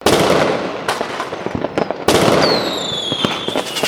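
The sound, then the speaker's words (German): A fireworks sound effect played to celebrate a win: fireworks crackle and pop in dense, loud bursts, with a sharp boom midway followed by a descending whistle and continued crackling. No one speaks. “Wir spielen ein das Feuerwerk für mich.”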